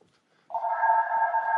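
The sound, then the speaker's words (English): A landline house phone rings with a steady electronic trill that starts abruptly after a brief quiet moment and carries on at moderate volume, with no talking. “Oh, in fact, I'm getting a phone call on the house phone.”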